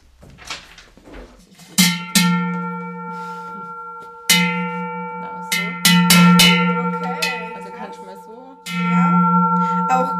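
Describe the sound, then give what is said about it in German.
A large, heavy cowbell, a Zugschelle of the kind cows wear around the neck at the Viehscheid when they come down from the Alps, is shaken by hand, clanging loudly in uneven bursts with long metallic ringing tails between strikes, with no talking. “ich habe eine große Zugschelle, wie man die nennt, die man die Kühe beim Viehschei tragen, habe ich mitgebracht.”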